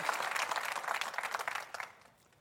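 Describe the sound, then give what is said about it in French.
An audience in a church breaks into steady applause for God, a dense wash of many hands clapping at once that holds strong for about two seconds, then thins and fades quickly. No one speaks over it. “Commande une bonne main d'applaudissement à Dieu qui est là dans les souffrances.”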